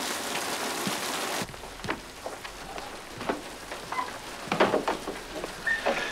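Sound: heavy rain falling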